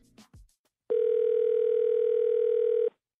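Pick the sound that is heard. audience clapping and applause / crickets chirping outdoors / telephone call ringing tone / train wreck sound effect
telephone call ringing tone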